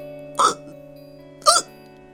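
Two short, sharp hiccups about a second apart, each a quick breathy burst, standing for a little bear hiccuping again, with a faint steady tone humming underneath and no talking.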